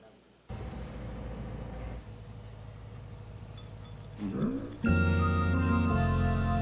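Two dogs in a video being played whine and vocalize over a steady background hum, with a rising, wavering cry midway and a louder, sustained tonal whine filling the final seconds.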